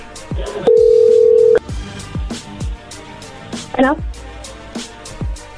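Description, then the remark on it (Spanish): A telephone call being redialed: a steady, mid-pitched dial tone holds for about a second, then gives way to a run of rhythmic thumps and short, chirpy electronic tones. “A ver, márquenle de nuevo. Ya. Muérvale, Vuélvale a Ok, ahí se está marcando.”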